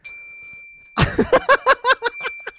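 Chimes ring out in a quick run of bright metallic strikes, about eight in a row, loud, over a faint sustained tone that lingers throughout. No one speaks.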